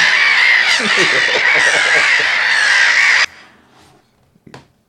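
Black-headed gulls calling: a dense, loud chorus of harsh, overlapping squawks for about three seconds, which cuts off abruptly, followed by a faint lone call.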